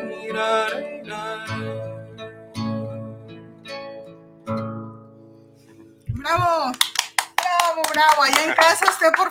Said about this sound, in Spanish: favor, aplauda, aplauda.